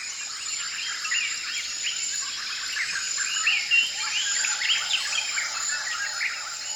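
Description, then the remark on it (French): A dense dawn chorus in a tropical rainforest in the Congo in the early morning: many birds calling and chirping over a steady, high insect drone, layered and continuous, with no voices. “La forêt tropicale du Congo au petit matin,”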